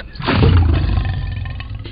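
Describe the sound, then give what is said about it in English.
A single loud, deep lion roar swells up quickly and rumbles on for nearly two seconds, with no voices over it. “Call 227 ROAR, and Lion Legal will come roaring”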